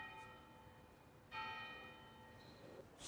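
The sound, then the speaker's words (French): The bell of the Tour de l'Île rings out, heard from the rue du Rhône, its long humming tone sustained and then struck again partway through, against faint outdoor street ambience. “On avance un petit peu, on entend bah, la, la tour de Lille exactement.”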